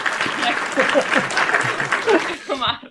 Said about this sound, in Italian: Bene, allora complimenti e festeggiamo anche questi follower. Facciamo un applauso ai mille followers di, di Copo Tong.